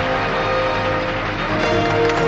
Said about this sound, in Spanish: Todos los cardenales hacen descender sus doseles quedando solo levantado el de Kirill. Todos aplauden al nuevo papa electo y se acercan con júbilo.